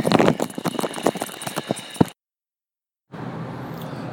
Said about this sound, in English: Let's see if I can figure out how to turn this thing off making too much noise in the Ziploc bag.